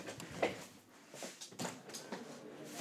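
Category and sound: household object, window being opened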